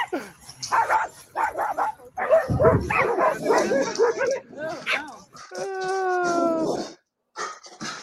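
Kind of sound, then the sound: animal, dogs barking and yipping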